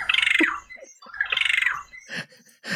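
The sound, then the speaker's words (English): A captive regent honeyeater gives two loud phrases of rapid, buzzy, metallic warbling in succession, followed by a couple of short, breathy rasping notes. No talking is heard. “This is a captive regent honey eater.”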